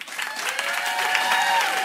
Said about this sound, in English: Uh, we're going to do an applause meter. If you think it should make it in, applause. Okay. And if you think Jigglypuff should not make it in, applause.